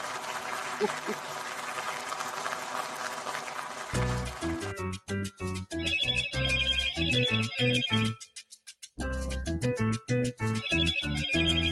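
After a few seconds of broad, hissy noise, a loud electronic cell phone ringtone kicks in, a bouncy run of repeating beeps and beats that pauses briefly and then resumes.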